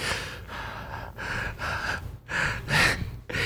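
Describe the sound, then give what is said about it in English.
A person imitates hard, heavy breathing: six or seven loud, raspy gasping breaths in a quick, steady rhythm, with no talking. “he was breathing hard as fuck.”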